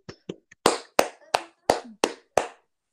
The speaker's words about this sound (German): Also, wenn ihr die Folge hört, bis gestern 14 Uhr ging die Abstimmung genau bis zu meinem Geburtstag. Kann man mal klatschen.